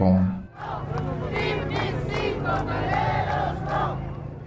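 A large protest march crowd entering La Paz chants slogans in unison, loud, with rhythmic rising shouts repeating over a steady roar of many voices, calling out yes to TIPNIS.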